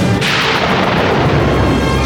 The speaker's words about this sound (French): la foudre, maîtresse du tonnerre, mène la danse macabre. L'apocalypse.